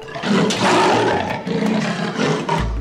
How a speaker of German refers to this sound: Eine Leopard mit scharfen Zähnen, so spitz wie Speere.